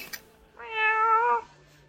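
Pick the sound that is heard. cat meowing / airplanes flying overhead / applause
cat meowing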